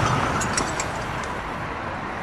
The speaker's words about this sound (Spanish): De repente, en el interior del capó o el cofre para los ignorantes, la banda del automóvil gris se zafa de la polea, ocasionando que la mariposa Technicolor salga volando del cigüeñal. El auto derrapa, se vuelca y da varias vueltas.